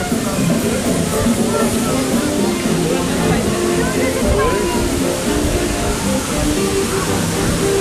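Loud, steady rushing of a waterfall by Bear Mountain fills the scene, a dense continuous roar with no breaks, and a voice seems to talk faintly underneath it.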